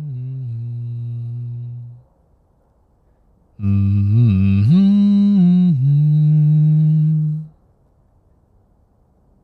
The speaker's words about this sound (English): you hear him humming a little tune quietly sounds like mm-hmm.